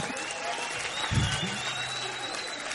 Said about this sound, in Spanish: Fuerte aplauso.